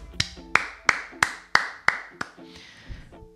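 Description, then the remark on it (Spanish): A single person claps their hands about seven times in a quick, steady rhythm, fairly loud, then the claps stop, leaving a faint murmur of background sound. “Me van a matar, mejor no aplaudo.”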